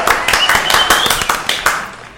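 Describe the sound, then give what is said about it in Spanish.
A short burst of hand clapping from a few people welcoming a guest, a quick uneven patter of sharp claps lasting about two seconds, fairly loud and without any talking over it. “Un aplauso,”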